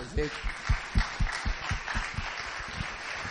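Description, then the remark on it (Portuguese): An audience applauds for the Foro Asta initiative, a dense wash of clapping with heavier rhythmic thumps underneath, and a brief voice heard at the very start. “Então, me gostaria de pedir uma salva de palmas ao Foro Asta, esta iniciativa fantástica aqui,”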